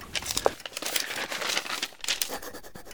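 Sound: paper rustling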